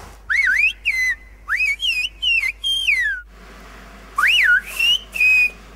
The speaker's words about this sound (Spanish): Este lenguaje silbado vino del norte de África eh, con los primeros pobladores que llegaron aquí a Canarias y se ha implantado de manera obligatoria hace tres años eh, en todos los centros escolares de la isla.